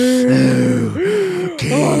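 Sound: voice imitating heavy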